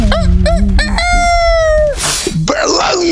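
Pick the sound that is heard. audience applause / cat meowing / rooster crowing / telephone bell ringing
rooster crowing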